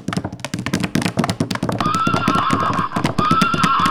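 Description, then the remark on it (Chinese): A horse, struck hard on the rump with a whip, gallops flat out in a fast, steady rhythm of sharp clops, and partway through a loud, high whinny rises over the running hoofbeats and then repeats. “马儿吃痛，不顾一切的向前狂奔。”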